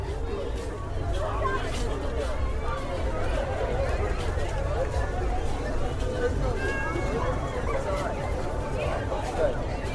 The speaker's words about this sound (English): Ah, yeah. You can hear that crowd from here. Air of expectation.